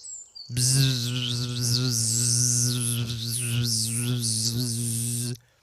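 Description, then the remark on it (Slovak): A person vocally imitates a classic insect buzz with one steady, continuous droning "bzzz" that lasts about five seconds before stopping abruptly. “Aby sme si rozumeli, klasický bzukot znie takto.”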